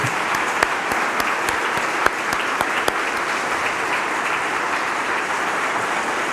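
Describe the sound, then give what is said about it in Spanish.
An audience claps together in praise during a worship service, a dense, steady wash of applause, with a few sharper individual claps standing out, loud and continuous throughout with no voices over it. “Dejen su Tanaj, dejen su Tanaj para que tengan sus palmas listas para exaltar.”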